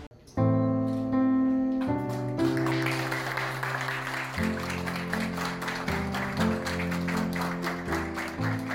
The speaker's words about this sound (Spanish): Estos son los aplausos que despidieron a un pequeño gran héroe que en un acto de amor, altruismo y generosidad permitió donar sus órganos a cuatro menores que estaban en la lista de espera para trasplante en la Ciudad de México.